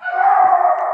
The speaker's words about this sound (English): That's my dog barking, one of the wonderful dogs that I have. So we'll try to get over this. I just hate it when you have to get a dog to shut up, but I love him.